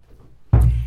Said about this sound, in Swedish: Och den där lilla dunken som ni kanske hörde nu, det var min stol som typ höll på att välta för att jag är så hetsig.